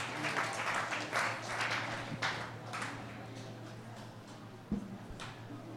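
A crowd applauds steadily, many hands clapping in a dense wash that stays fairly constant for several seconds, with a low hum underneath and a brief thump near the end.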